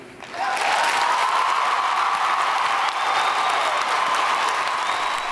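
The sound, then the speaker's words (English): A crowd of thousands of people at a CNN town hall held in an arena bursts into sustained applause and cheering, loud and steady after a brief quiet start, with whoops and shouts rising above the dense clapping. “There were like thousands of people there, and they were cheering and hooting, and mm-hmm.”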